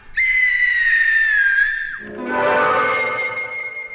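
A woman screams with all her strength, a piercing, sustained scream holding for almost two seconds, then gives way to a rough, wavering howl like an eerie unearthly whistle, a violent gust in a burial vault. Both are loud, with no talking.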